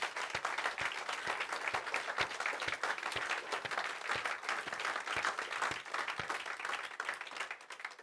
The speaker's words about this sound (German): Egal was du, gib mal Jesus einen Applaus.